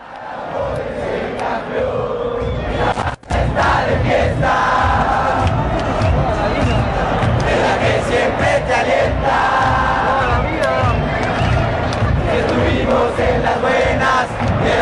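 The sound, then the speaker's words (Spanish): A large stadium crowd of Chivas de México football supporters chants a song together, loud and continuous, the massed voices filling the space with a steady rhythmic roar, briefly cut off once near the start. “Escuchemos la hinchada de Chivas de México.”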